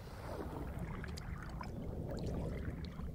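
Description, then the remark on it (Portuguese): A boat moving through deep, dark water, with a steady low rushing wash and scattered small splashes and drips. The sound is continuous and fairly quiet, and no one speaks. “Por águas profundas e tenebrosas ela seguiu, num conveniente barco a caminho de casa.”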